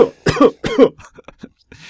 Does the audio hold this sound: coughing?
yes